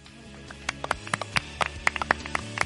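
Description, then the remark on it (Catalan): A small audience claps in sparse, irregular bursts, a dozen or so distinct claps over a steady low background hum. No one speaks. “Avui ens acompanya la Nàdia Gulam. Un fort aplaudiment.”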